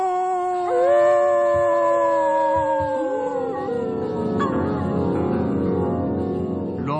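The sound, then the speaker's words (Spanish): A wolf howls in long, rising and falling wails that stretch over several seconds, then layered howls overlap into a denser chorus, loud with no talking. “rompió a dar aullidos y huyó al bosque.”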